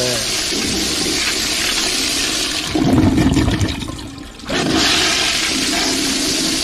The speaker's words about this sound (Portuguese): Pode dar descarga aí. Dá descarga no caminho.